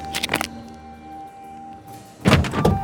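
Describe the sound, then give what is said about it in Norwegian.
A car passenger door is yanked open with a quick metallic clunk and rattle, then a heavier thump and shuffle about two seconds later as someone throws himself inside, over a low steady hum. The car is stopped under a chestnut tree at a bend. “Reiv opp døra på passasjersida og heiv meg inn.”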